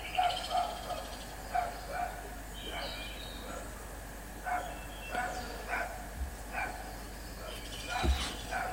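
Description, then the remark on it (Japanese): A dog barks over and over, short sharp woofs coming in irregular bursts against a faint steady background hum, fairly quiet overall with no talking. “めっちゃ犬が吠えてる。”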